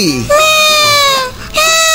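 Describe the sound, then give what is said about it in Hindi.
A voice imitates a baby crying during a Red FM radio segment, producing two loud, wailing cries with a brief dip between them. “बिल्ली बिल्ली कहा है बिल्ली बिल्ली नहीं वो तो मैं हूँ मैं बच्चे की आवाज निकाल रही थी ये बिल्ली की आवाज है बच्चे की आवाज नहीं”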